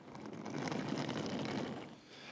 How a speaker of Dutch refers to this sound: Oh, je hoort hier achter het koffertje trouwens. Ja, het is echt, we hebben het in een reiskoffertje gedaan. Je hoort het nu.